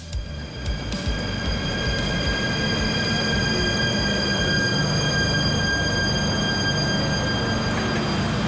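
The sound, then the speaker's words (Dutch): A train rolls in with a steady low rumble, its wheels and brakes letting out a sustained high metallic squeal as it slows into the station in Tilburg. No one speaks. “Maar nu ben ik dus niet in Haarlem of Zwolle, maar ik stap uit de trein in Tilburg.”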